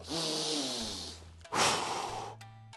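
An airy breath drawn in steadily during a breathing exercise, 3 seconds in, followed right after by a longer, forceful 5-second exhale, with a soft low drone humming underneath; no one speaks.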